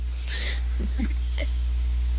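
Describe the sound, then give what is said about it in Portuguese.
A single heavy breath into a microphone rushes out as a short airy burst, followed by faint wheezy vocal noises over a steady low electrical hum. “Tô tá tua respiração.”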